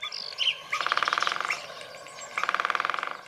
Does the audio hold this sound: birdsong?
yes